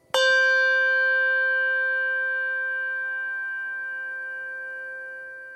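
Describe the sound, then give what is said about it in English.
A single Schulmerich handbell with tang is struck once, with a crisp attack and a bright, pure ringing tone that sustains and fades slowly over several seconds. No one speaks. “Schulmerich bell with tang.”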